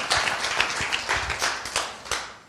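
A crowd applauds two participants being thanked, with dense, overlapping hand claps, a steady crackling wash of sharp transients at moderate loudness, with no talking over it.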